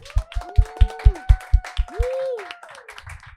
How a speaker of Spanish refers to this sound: Pero para introducirlos, denle un aplauso, por favor, a nuestros queridos invitados, chinga.